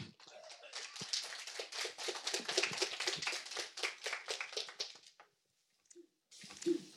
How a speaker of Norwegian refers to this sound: Så eh, gi henne en eh, varm applaus. Velkommen.